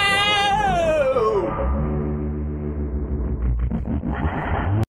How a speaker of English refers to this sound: It's the time and space dimensional warp that Arjuna and Troy and Evan use.